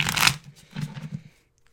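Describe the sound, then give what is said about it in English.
A deck of tarot cards is shuffled: a loud crisp riffle, then a short run of softer papery flicks before the sound stops, with no voices. “Last shuffle.”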